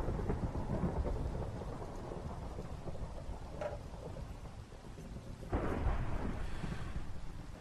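rain and thunder

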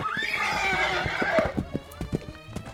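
horse neighing

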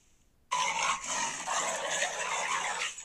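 dog barking and whimpering

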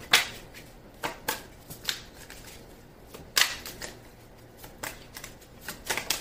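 shuffling tarot cards

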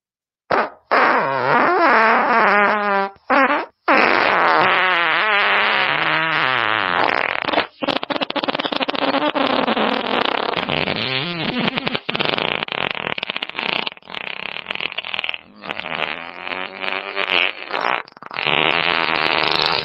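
long fart sound effect

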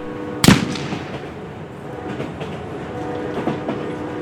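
train moving on rails

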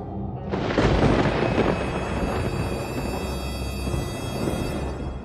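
heavy rain with thunder

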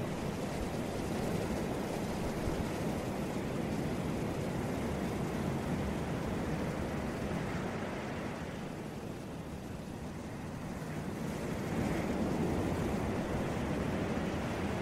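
ocean waves

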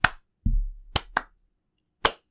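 slow hand clapping

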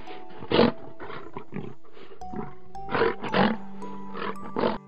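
lions roaring

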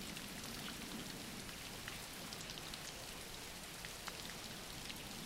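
steady rainfall

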